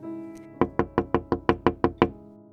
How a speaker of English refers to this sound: she knocked on Gerald Turner's door